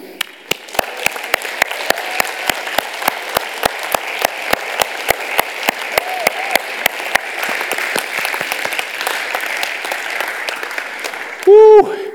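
Loud audience applause for one of the organisation's leaders from Thailand, beginning as steady rhythmic clapping in unison and dissolving into dense, sustained crowd clapping, with a brief high-pitched cheer or whoop near the end.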